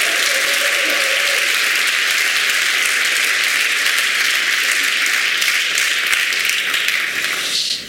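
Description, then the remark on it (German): Sustained audience applause at a panel event, a dense, steady wash of many hands clapping at constant loudness for several seconds, tapering off slightly at the very end. “Und ich muss zugeben, ja, das ist ein Applaus.”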